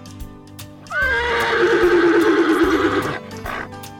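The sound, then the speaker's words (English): A horse, Rosinante, lets out one loud, drawn-out whinny that starts high and slides downward with a quavering tremble, lasting about two seconds before fading into a low background rumble. “From now on, my name is Don Quixote, and my horse will be called Rosinante.”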